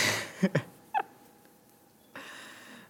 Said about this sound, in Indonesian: suara cicak pun datang